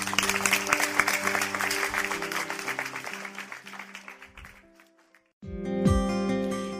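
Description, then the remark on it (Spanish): A crowd claps steadily for God over soft sustained music, the applause thinning and fading out after a few seconds. A short silence follows, then a brighter music passage begins. “¿Por qué no le damos un fuerte aplauso a nuestro Dios?”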